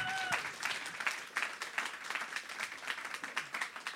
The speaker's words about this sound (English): Let's give him a clap